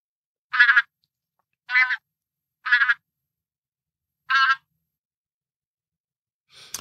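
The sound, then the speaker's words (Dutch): Four separate honking, trumpet-like calls of a bean goose sound out alone at an uneven pace, each short and clear, followed by a faint rustle at the very end. “Ja, als je hier goed naar luistert, dan eh, kan je misschien een beetje indenken dat het een beetje meer trompetterend dan gakkend geluid is. Dit is dan van de rietgans.”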